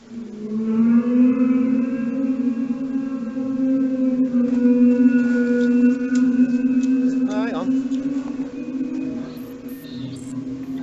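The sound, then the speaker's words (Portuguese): A loud, eerie low drone heard in the sky hangs steadily for about eleven seconds, a rich buzzing hum with layered overtones, pitch holding mostly level with brief wavering toward the end. No one speaks. “tu chegaste a, ver alguma coisa sobre esses barulhos no céu?”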